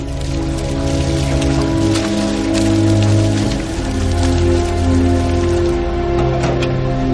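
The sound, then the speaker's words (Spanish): Gasoline is poured from a can onto the walls of a warehouse, splashing steadily against them, a loud continuous spattering with scattered sharper drips, and no voices. “El gigantón echa el contenido de un bidón sobre las paredes de la nave.”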